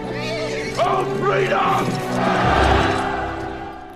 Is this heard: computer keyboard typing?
no